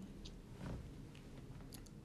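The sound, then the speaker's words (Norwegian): Swallowing and wet mouth sounds of a person who has just drunk a cup of tea, a few soft clicks and gulps spread over two seconds, with no talking. “du kommer til å høre meg svelge veldig mye, for jeg drakk litt eh, Jeg drakk egentlig en hel kopp med te her, her i stad.”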